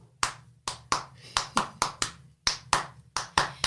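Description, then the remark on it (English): A dozen sharp hand claps in a loose, slightly uneven rhythm, some falling in quick pairs, each crisp and loud over a faint low hum, with no voices. “You want to clap? Yeah, I'll okay. clap.”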